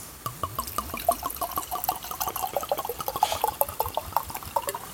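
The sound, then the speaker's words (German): A bottle is opened with a pop, then liquid glugs out of it in a quick, steady series of gurgling pulses, fairly loud, continuing for several seconds with no one speaking. “Schönes Geräusch. So. Das ploppt.”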